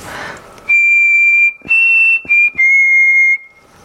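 A person whistles four sustained, steady notes into a computer microphone, whose waveform is shown on screen; each note is held for about half a second to a second with brief breathy gaps between them, fairly loud with no talking.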